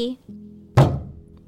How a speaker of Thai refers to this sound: เจ้าเมืองได้เปิดประตูเดินเข้ามา